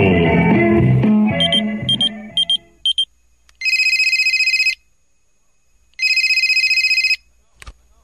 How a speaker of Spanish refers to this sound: Bueno. Oye, van como tres veces que te marco al viper y no contestas.